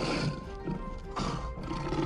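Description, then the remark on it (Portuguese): A loud saber-toothed tiger roar, deep and rumbling, swelling twice in quick succession with a growling, raspy texture and no voices. “Enquanto você observa o que te rodeia, aparece um animal pesado e enorme, um tigre dente de sabre, que te olha fixamente e corre na sua direção.”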